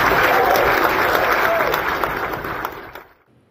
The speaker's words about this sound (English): But listen to the reaction from the crowd in Navarro County about fighting the woke liberals.